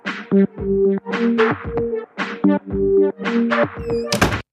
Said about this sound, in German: Und Tür geht wieder zu.